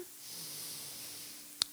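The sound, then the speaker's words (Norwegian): A slow, deep, controlled breath drawn in through the nose for a count of four, a soft steady airy hiss lasting over a second, quiet, ending with a tiny click. No one speaks. “Hvis du tar tre dype innpust med kontroll, puster gjerne inn på fire gjennom nesen.”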